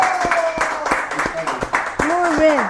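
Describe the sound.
Applause sounds as a sparse run of sharp, irregular claps, about ten in under three seconds, over a steady background with rising and falling voice-like cheering tones.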